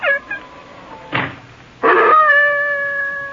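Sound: dog howling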